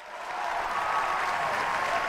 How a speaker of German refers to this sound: Ja, herzlich willkommen und wir dürfen unseren nächsten Gast begrüßen. Applaus, Applaus!